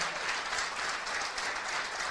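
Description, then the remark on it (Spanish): A crowd applauds their leaders, who are seated at the front, with a dense, even patter of many hands clapping at once that holds a consistent loudness for the whole moment, with no voices standing out. “nosotros estamos muy contentos de que mm, sus líderes, este, a los cuales pido un fuerte aplauso, que están sentados aquí adelante,”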